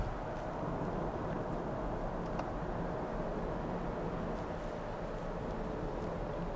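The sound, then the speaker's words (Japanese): A steady, low rumble of road noise inside a car driving a long, very straight road in Hokkaido, Japan, a fairly large road with two lanes each way, constant and unbroken throughout, with a broad hum of tires and engine and no voices. “今もうずっとまっすぐの道路を走ってます何キロ来たんだろうものすごいまっすぐだよこういう道路はねあんまり他の地域にはないですよね北海道ならではだよ”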